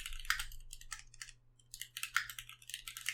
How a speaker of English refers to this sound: I just typed in um, Subway chocolate chip cookie calories and it's 148 calories.